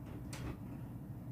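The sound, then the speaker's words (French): A door is opened with a single short, scraping swoosh lasting about a quarter second, fairly quiet over a steady low room rumble, with no talking. “Je vais ouvrir la porte.”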